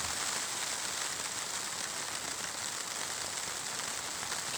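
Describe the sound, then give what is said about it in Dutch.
Steady rain falls on a tent in the middle of the night, around half past one, a dense, continuous hiss of drops pattering overhead without pause. No voices, just the even wash of rainfall throughout. “Het is midden in de nacht, half twee. En het is de hele dag dit weer geweest.”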